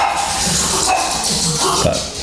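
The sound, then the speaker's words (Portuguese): A dog gives a few short, sharp barks at uneven intervals over a steady, noisy background hum. “o meu cão não gostou que eu dissesse que ia casar com o exaustor e veio aqui reagir a isso.”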